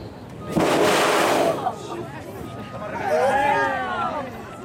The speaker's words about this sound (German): So klingt das, wenn ein Parkmitarbeiter gerade einen Eimer Wasser in ein in den Boden eingelassenes Rohr geschüttet hat und nach wenigen Sekunden eine Art künstlicher Geysir aus dem Boden schießt.